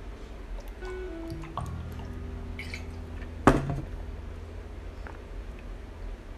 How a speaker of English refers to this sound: Hey, let me get a sip of my water real quick. ASMR, you know?